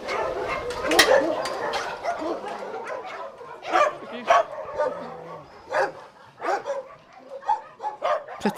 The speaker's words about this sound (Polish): po ich szczekaniu, my wiemy, kiedy przyjedzie obcy, kiedy szczekają, bo szczekają, kiedy chcą zwrócić na siebie uwagę, a kiedy to szczekanie jest agresywne i trzeba iść, zobaczyć o co chodzi.